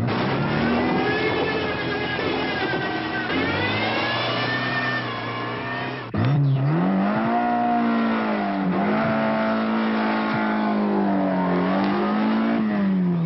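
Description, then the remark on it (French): A Fiat 131 car engine revs hard and accelerates, its pitch climbing steadily, then drops sharply at a gear change and climbs again, loud, with no voices. “prend de la vitesse.”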